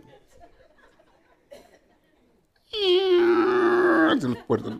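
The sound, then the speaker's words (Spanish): After some quiet talking, a voice breaks into a loud, strained, drawn-out creak, mimicking huge doors two stories tall creaking open like old hinges. It holds steady for over a second, then bends downward and ends with a short rasp. “Y bueno, viene por ahí el diablito y abre unas puertotas del tamaño de dos pisos de alto y donde las abren nomás rechinan las puertas como bisagras viejas, como las de las casas de ustedes.”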